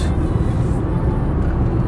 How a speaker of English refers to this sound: recording today's podcast, first one since July 22nd, from behind the wheel of a car driving on the other side of the road, on the other side of the car from Barbados.